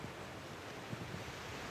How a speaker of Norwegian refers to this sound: Hører vi bølgene fra Varangerfjorden slå inn her. Det er naturens sang fra sjøen. Det er, eh, det er bare så vidt du hører bølgeskvulpet, men når det er storm ute og bølgene slår mot eh, stranda, da, det, da, hører du det på innsiden av huset også.